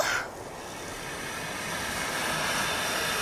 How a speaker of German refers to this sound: Ich zünde den Brenner, damit die Luft in der riesigen Ballonhülle richtig heiß wird.